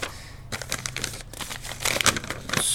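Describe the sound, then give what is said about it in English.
Crisp paper crinkling and rustling in a series of short bursts as a note found on a van's windshield is handled and unfolded, with a brief sharper crackle near the end and no voices. “Look, there's a note on the windshield.”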